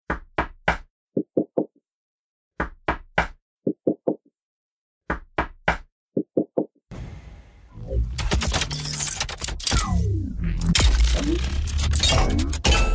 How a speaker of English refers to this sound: If you find it interesting, the knocking noises that we got in reply, I think anybody that has any sense of rhythm